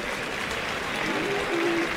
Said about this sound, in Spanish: Hay palmas para Talavante cuando se retira a saludar al presidente, que se levanta en el palco Gabriel Fernández Rey.